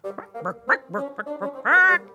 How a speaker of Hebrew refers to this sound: תרנגולת חרוצה קרבה בצעדי ריצה.